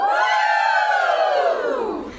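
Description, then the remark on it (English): A group of 21 crafters at a crafting weekend in Wisconsin cheer and whoop together in one sustained, rising-and-falling shout lasting about two seconds, loud, tapering off at the end. “That's the sound of 21 members of the OBM Craft Along Facebook group”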